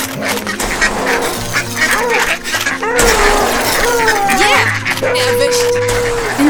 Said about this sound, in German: Die Wasservögel fliegen schnatternd empor.